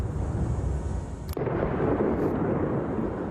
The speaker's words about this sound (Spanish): Israel sigue bombardeando desde el aire y con artillería Han Yunis, la segunda ciudad de la franja.